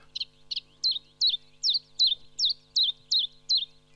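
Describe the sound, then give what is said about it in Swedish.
A common chiffchaff sings its steady two-note song, about ten clear, high chiff-chaff syllables repeated at an even pace, with a faint low hum underneath and no talking. “På svenska tycker vi den säger salt, sill, silt, salt, salt, sill, salt, sill, salt, sill.”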